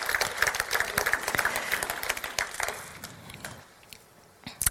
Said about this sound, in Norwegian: Ja, det er faktisk verdt en applaus.